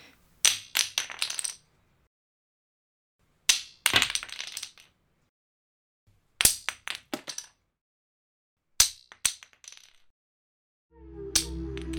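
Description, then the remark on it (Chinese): Wooden divination blocks are thrown onto a hard floor four times while asking the earth god Tudi Gong for a favourable answer, each drop a sharp crack followed by a few quick bouncing clicks, with silence between throws and a low hum rising at the end. “土地公公答应的话，请给我一个醒杯。”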